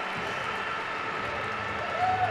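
A crowd applauds in a steady, dense wash of clapping that runs unbroken for about two seconds, swelling slightly louder right at the end, with a murmur of voices mixed in.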